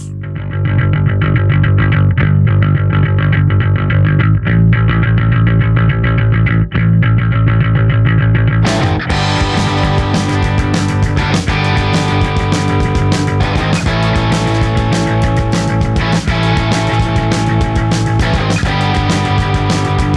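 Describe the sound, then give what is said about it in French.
A loud punk rock song with heavily distorted guitars; it opens muffled and thin, as if filtered, then bursts into a full, raw, driving band sound about halfway through. “on écoute les chats avec …”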